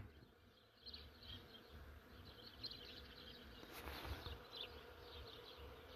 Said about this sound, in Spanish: Hay un árbol que está lleno, lleno de abejitas que están pecoreando, néctar y polen. Así que hay un sonido ambiental natural. No sé si lo alcanzan a oír